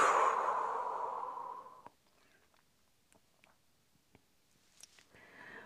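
A long, slow, breathy breath out after a held breath, gradually fading over about two seconds, then near silence with a few faint soft clicks.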